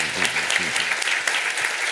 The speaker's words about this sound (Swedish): Nu tar vi en applåd till.